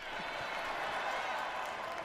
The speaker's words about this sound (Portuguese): peraí, segura aí que eu vou até dar uma salva de palmas aqui, olha, gente.